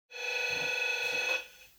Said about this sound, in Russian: Опять у меня звонит домофон в день, когда мы записываем страшные истории, блин.